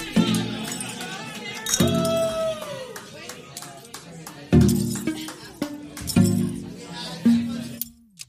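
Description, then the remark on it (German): Drinking glasses clink together several times during a short break to drink a small glass of water, each strike leaving a brief bright ring, amid scattered taps and clatter with faint voices murmuring in the background. “Ähm, genau, dann machen wir jetzt mal eine kurze Pause, trinken ein kleines Glas Wasser und wir hören uns gleich nochmal.”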